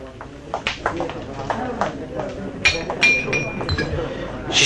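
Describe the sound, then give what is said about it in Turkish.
Bright glassy clinks ring out, several in a loose cluster, with a soft trickle of wine being poured into a glass beneath, while people talk quietly in the background. “Hey, garson bey, bir bardak daha şarap verin.”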